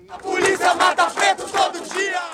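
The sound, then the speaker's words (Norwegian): Thousands of street protesters in Porto Alegre, southern Brazil, chant in unison that police kill Black people every day, after a Black man was killed by white guards at a supermarket; loud voices rise and fall in a steady rhythmic pattern of repeated shouted syllables. “Politiet dreper svarte hver dag roper demonstranter i byen Porto Alegre i det sørlige Brasil.”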